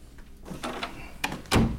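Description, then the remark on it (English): A door swings shut with a brief rattle and then a solid, loud thud near the end, preceded by a few softer handling noises and no talking. “If that is all, I'm going to close the door.”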